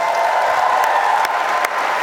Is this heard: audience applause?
yes